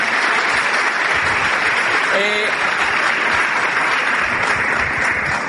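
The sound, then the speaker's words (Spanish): A seminar crowd claps loudly and steadily for first-time attendees, a dense wash of hand claps lasting several seconds, with a brief voice and a short tonal sound briefly poking through the middle. “Vale, un aplauso tremendo, un aplauso tremendo a estas personas.”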